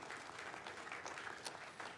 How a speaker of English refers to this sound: Jesus Christ died on the cross, rose again, and he's coming soon would you give the Lord a loud Arizona round of applause? Amen? Amen.